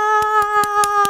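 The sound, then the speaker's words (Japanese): One person claps their hands five times in a steady, fairly quick rhythm, clear, over a sustained background tone, applauding themselves to celebrate the release of their new book. “パチパチ自分でやってる拍手 拍手の音入ってるかな”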